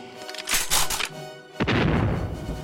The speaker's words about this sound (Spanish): Y yo, de momento, corro, pues balazos creo haber oído.